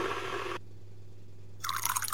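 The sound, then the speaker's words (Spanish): Boiled water is poured over tea leaves in two short bursts: a steady hiss-like trickle, a brief pause, then a brighter splashing pour. Fairly quiet, with no voices. “A continuación coloco a hervir el agua. Y una vez lista, la abierto”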